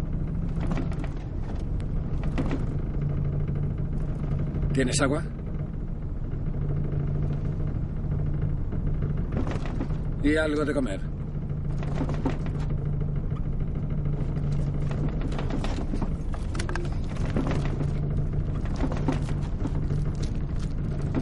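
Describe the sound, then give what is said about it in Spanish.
Steady low engine rumble of a moving car heard from inside the cabin, continuous throughout, with brief crackles and rustles and a couple of short spoken exchanges over it. “De nuevo en el coche, Hank está atado a la puerta del asiento trasero.”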